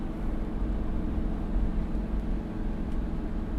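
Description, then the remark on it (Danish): A heavy lorry overtakes on a Danish highway towards Odense in the morning darkness, its deep, steady engine and road roar filling the air, with no voices. “Nu bliver jeg overhældet os lastbiler igen!”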